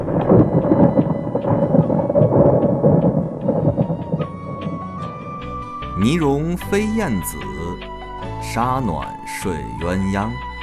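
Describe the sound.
A steady roar of heavy spring rain and low, rolling thunder fills the first half, then fades back as a voice takes over with pitched, sweeping tones over the lingering rain.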